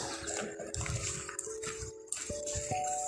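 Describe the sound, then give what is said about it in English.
A steady, noisy traffic rumble from cars passing overhead on an overpass bridge, heard from underneath it, with repeated low thumps and a faint droning tone running through it, fairly loud and continuous with no talking. “Uh, disclaimer for the next few minutes of the podcast while we are underneath the bridge, you are going to constantly hear the sounds of cars driving overhead.”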